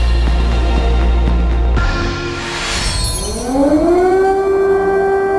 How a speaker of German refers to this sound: 24. Februar 2022. Luftalarm in Kiew. Kurz nachdem die Sirenen das erste Mal geheult haben, schlagen russische Raketen in der ukrainischen Hauptstadt ein.